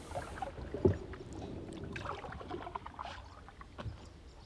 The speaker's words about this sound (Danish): Ah, det er en fladbående båd. Nu går han fra os.